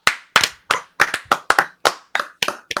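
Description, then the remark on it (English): Hands clapping loudly in a quick, slightly uneven rhythm, about a dozen sharp claps over a few seconds, with no voices. “Let's clap it out.”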